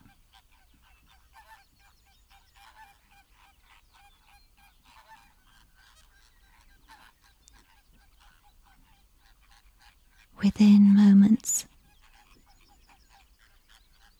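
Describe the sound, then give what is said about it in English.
After a long quiet stretch with a few faint spoken words, a flock of flamingos with outstretched necks flies past a window, bursting into loud honking for about a second, a harsh overlapping clamour that cuts off abruptly. “a vivid flash of colour flock of flamingos with outstretched necks fly past the window.”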